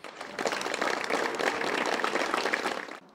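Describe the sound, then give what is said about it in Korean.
A group bursts into a warm round of congratulatory applause as the national football team begins training, many hands clapping densely and steadily for about three seconds before it cuts off. No one speaks. “오늘 축하의 박수와 함께 훈련을 시작한 축구 대표팀은”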